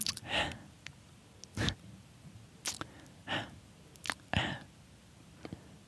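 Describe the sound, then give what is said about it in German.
A voice imitates a man's wet lip smacking made with the tip of the tongue: a series of about seven short, moist smacks and clicks spaced irregularly, fairly quiet, with faint breathy sounds between them and no talking. “Man muss übrigens zu diesem Schmatzen äh, sich vorstellen, dass die, die Zunge ja.”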